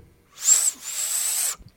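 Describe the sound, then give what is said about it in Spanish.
A person imitates a loud, shrill two-part catcall whistle, the way a guy arriving on a bicycle used to whistle for a woman: a short piercing note, a brief break, then a longer sustained high whistle, with no talking. “llegaba el vato en una bici, güey. Ah. Y la chiflaba así, ah.”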